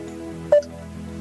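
Two short, high electronic beeps sound a moment apart over a steady low hum, the first clear and prominent, the second cut off at the very end.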